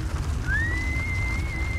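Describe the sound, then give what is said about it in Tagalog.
A thin, eerie whistle rises in pitch and then holds a long, steady tone over a low rumbling background, sustained for over a second without any talking. “Hindi pa rin tumitigil ang sipol sa, sa kampagyinig ng lupa.”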